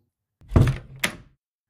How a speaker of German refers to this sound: Dann zog er die Tür hinter sich zu.